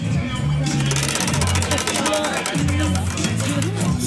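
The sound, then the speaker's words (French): A bicycle wheel, used as a small quiz game in which players spin it and then answer a question, ticks out a rapid, steady stream of sharp clicks that runs for the whole stretch, loud, with murmuring voices and a low hum underneath. “Là, on a une roue, euh, un espèce de petit jeu avec une roue de vélo qui s'appelle la roue de l'infortune. Donc il faut tourner”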